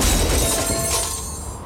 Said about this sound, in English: This is the sound of a brand new outdoor grill being hurled off a 20 story building.